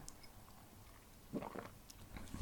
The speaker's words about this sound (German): Das würde ich dann, wenn ich dann wieder nächste Woche beim Joggen unsere Folge höre, würde ich jetzt an der Stelle dann nochmal überprüfen, ob man das hört, wenn ich jetzt trinke.